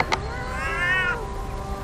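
A single drawn-out cat meow, rising and then falling in pitch over about half a second, clear and fairly loud against a faint steady background hiss, with no one talking.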